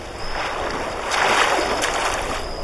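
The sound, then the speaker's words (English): Video game water sloshing and splashing in a lake, a steady wash of sound that swells louder midway before settling back, with no voices present. “Ooh, what's that sound? Oh, we discovered a thing and we are now in a lake.”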